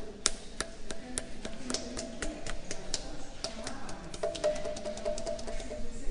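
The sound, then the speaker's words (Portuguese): Two hands tap repeatedly on a stone pillar at a deactivated field, producing a quick, uneven series of soft, dry knocks. The taps are fairly quiet, with a faint ringing hum beneath them and no talking. “Eu sei que ele tocava assim com duas mãos.”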